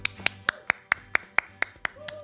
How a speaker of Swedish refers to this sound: Och min kära publik är trött. Jag får stå och applådera ensam.